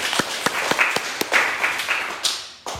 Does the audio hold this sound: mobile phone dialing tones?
no